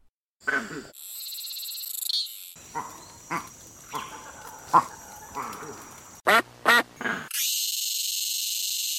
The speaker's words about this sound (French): Bon, vous avez reconnu le canard quand même. C'est facile, il fait coin-coin.